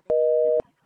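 A telephone busy signal: one steady, mid-pitched electronic beep lasting about half a second, loud and clean, with faint clicks at its start and end, followed by quiet.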